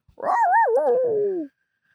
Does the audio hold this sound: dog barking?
yes